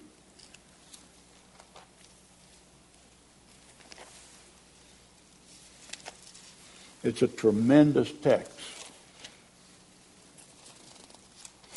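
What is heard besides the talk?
bible pages being turned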